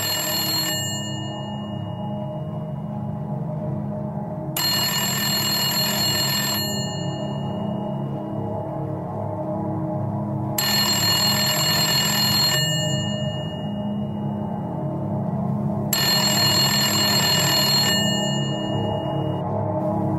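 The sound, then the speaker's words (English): A phone rings for an incoming text message from New York journalist Anna Merlan, in four evenly spaced bursts, each about two seconds long, bright, over a steady low background rumble with no voices. “text message. Let's see, it's from uh, Anna Merlan.”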